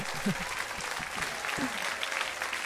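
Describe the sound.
Canned applause plays as a steady, dense wash of clapping that holds at an even loudness throughout, with a few faint voices or murmurs mixed underneath.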